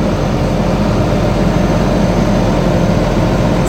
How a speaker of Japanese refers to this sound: 今ねゴミをプレスしましてはいいいですねいい感じですね